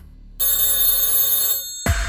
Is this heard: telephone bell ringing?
yes